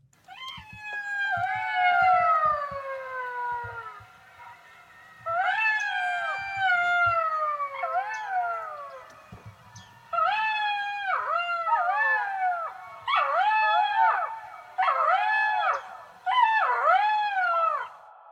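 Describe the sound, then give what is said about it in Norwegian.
Jackals howl at sunset in Akselv in a wavering, high-pitched chorus, long overlapping wails giving way to shorter quavering yips in rhythmic bursts, loud, with no talking. “Og da solen gikk ned, begynte dyret å ule.”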